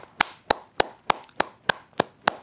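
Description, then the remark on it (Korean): Eight sharp, crisp hand claps in a steady, even rhythm, given as encouraging applause for students preparing for entrance exams, each a quick bright smack with nothing else between them and no voices. “그, 그 목표점을 향해서 오늘도 열심히 달리고 있는 모든 분들께 예, 응원의 박수를 보냅니다.”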